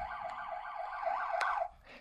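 The short rapid tone of an ambulance siren, used when traffic is starting to back up, cycles quickly up and down in pitch, loud and steady, with no talking over it, then cuts off abruptly near the end.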